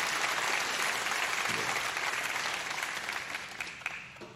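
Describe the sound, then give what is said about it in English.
An audience at Pathway Church in Burleson, Texas, claps for the goodness, mercy and kindness of God in a dense, steady burst of applause that stays loud throughout, then begins to thin and fade slightly toward the end, with a few scattered voices underneath. “Can we clap again for the goodness and the mercy and the kindness of God?”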